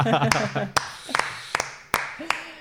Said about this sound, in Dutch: Maar ja, jullie klappen, maar eigenlijk is het helemaal geen applausje waard.